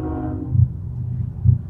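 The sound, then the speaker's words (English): A train rolls past, heard from inside a car, with a deep, steady rumble, two heavy rhythmic thumps from the wheels, and a brief tonal hum at the start. No one speaks. “A train goes by”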